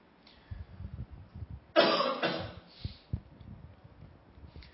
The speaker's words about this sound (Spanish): Ahora, ahora la, la, carraspera que tengo es